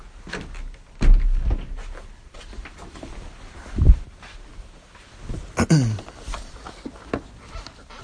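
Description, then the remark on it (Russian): A door is pushed shut with a few dull knocks and a short creaking swing, then a final thump, with faint rustling in between. “Дверь-то так и не закрыл, кстати.”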